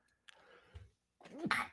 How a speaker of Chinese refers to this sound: 哎，不好意思啊。哦，早上啊会打喷嚏，你们啊就是包容一下哈。